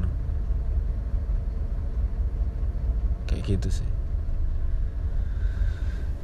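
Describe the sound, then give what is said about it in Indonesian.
A steady, low engine rumble of a car stuck in a traffic jam fills the whole recording, with a person speaking briefly over it and a short clatter midway. “ya ini aku kena macet jadi ya hmm, kapan sampainya ini”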